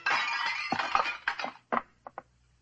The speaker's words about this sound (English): I sidestepped and reached back, grabbed one of Lee Kai's art figures, and threw it at his head. He ducked, and the statue shattered against the wall.